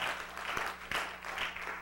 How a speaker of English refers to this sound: Come on, can you give God a great big hand clap this morning for me?